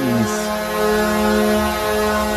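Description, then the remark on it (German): An NHL ice hockey goal siren, from the Arizona Coyotes' goal celebration, blares in one long, loud, unbroken blast, a deep, buzzy horn tone that settles quickly onto a single steady pitch and holds with no voices over it. “also, die Sirene, Goal ist nicht.”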